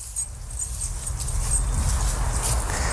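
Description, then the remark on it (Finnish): A dog makes soft, restless sounds over a steady low outdoor rumble, with light rustling and jingling running through the few seconds. No one speaks. “Urho, ei me mennä nyt koirapuistoon”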